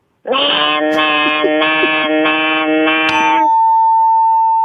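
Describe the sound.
A voice imitates a cicada with a loud, buzzy, nasal drone held for about three seconds, slightly pulsing throughout, then a steady high tone rings on alone.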